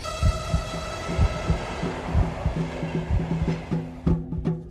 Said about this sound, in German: Wenn es den Herzschlag hört, die Körpergeräusche, wenn wir genauer darauf achten, dann besteht die ganze Natur ja aus Geräuschen, Klängen, Rhythmen.